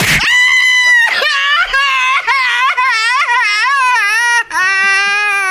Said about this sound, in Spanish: Ah, no, ah, no, estoy gritando, estoy llorando.